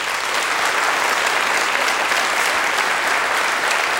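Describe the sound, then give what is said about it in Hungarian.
A studio audience applauds a recited poem steadily for the full stretch, a dense, even wash of clapping hands at a strong, constant level with no voices standing out. “Nincs megállás, bár szerintem a taps az nem annyira az életutadnak mint inkább a versnek szólt.”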